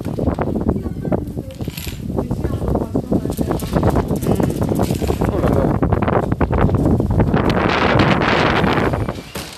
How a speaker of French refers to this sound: Oh, il y a v'là le vent.